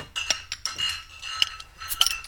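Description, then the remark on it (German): Several bright glass clinks ring out in quick, uneven succession in a toast with Tannenzäpfle beer, some leaving a short high chime, with faint clatter between them and no voices. “Cheers, Burschen. Zum Wohl.”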